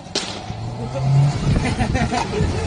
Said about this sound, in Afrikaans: Jong mense staan op 'n sypaadjie in Elsie se rivier. 'n Groen golf jaag verby en die skote klap.